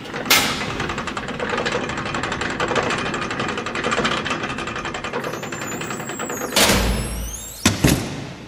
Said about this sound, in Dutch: En als automatisch schuiven voor ons de grote hekken open en achter ons vallen ze met een donderend geweld weer dicht. En dan hoor je die zeven grendels weer in hun leuven schieten. Het is een beetje onheimisch.